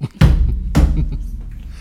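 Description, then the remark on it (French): Two loud slaps of a teacher's hand on a student's desk about half a second apart, each a sharp thump with a short resonant ring, followed by someone laughing. “ce que vous venez d'entendre, c'est la main sur le bureau.”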